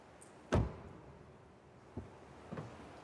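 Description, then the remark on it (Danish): A car door shuts with a solid, heavy thud close to the microphone, followed by two fainter latch clicks and a muffled knock in an otherwise quiet space. “Jeg prøver lige at lukke herover, så man også kan høre det lidt tættere på mikrofonen.”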